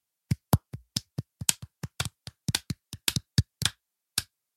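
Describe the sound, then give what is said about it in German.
Sparse applause, likely just one or two people clapping: about twenty sharp, separate claps in an uneven rhythm over four seconds, fairly loud, with no talking. “Applaus.”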